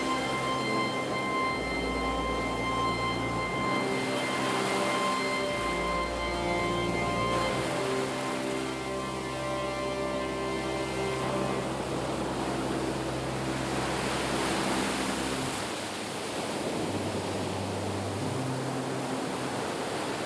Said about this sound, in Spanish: Y desde el interior, claro, se escuchaba poderoso el sonido salvaje de un mar indómito y profundo.